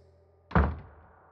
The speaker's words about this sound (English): Pat walked out of the room, shutting the door behind them